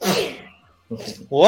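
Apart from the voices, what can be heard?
sneeze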